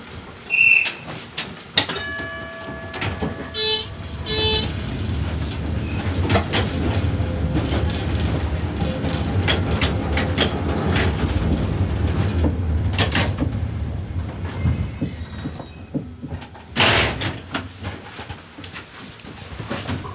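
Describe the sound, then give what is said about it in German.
The doors of a 1937 Hamburg tram railcar, one of five prototypes, clatter shut with a bell-like ring, then the car rumbles steadily along the rails, with low motor drone, wheel noise and an occasional sharp clank. “Ja, der Wagen, in dem Sie hier sitzen, ein Triebwagen aus Hamburg, Baujahr 1937.”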